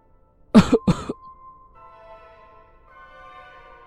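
Two sharp, raspy coughs in quick succession from an older woman at the end of a footpath, followed by a faint sustained tonal hum fading in the background.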